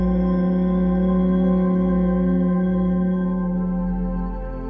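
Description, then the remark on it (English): A single long, steady chanted mantra syllable, "Hum" (the throat chakra mantra), held as a low humming drone for several seconds, loud, with no other voices, softening slightly toward the end. “And as you speak this chakra mantra, it begins to clear your throat energy.”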